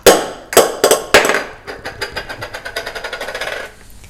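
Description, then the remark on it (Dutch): A plastic blender cap falls out of a drawer as it is pulled open and clatters: four sharp, loud impacts, then a quick run of smaller rattling bounces that speed up and fade as it settles. No one speaks. “Oké, ik trok mijn la open en toen viel er een plastic dopje uit van mijn eh, blender.”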